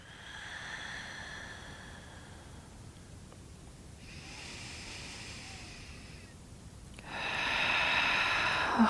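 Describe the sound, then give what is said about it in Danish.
Slow, deep breathing while holding the yoga warrior two pose: three long, airy breaths of a few seconds each, with short pauses between them and the last one loudest. No one speaks. “Lad det gerne være det her let fordybede åndedræt.”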